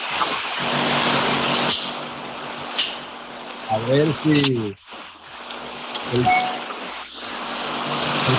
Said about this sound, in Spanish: y los motores del avión están poniendo todavía por ahí.